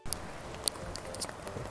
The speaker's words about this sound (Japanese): えー、今日も京都でお外で撮ってるんですけどすごい雨と風で大変聞き苦しいかと思いますがご了承ください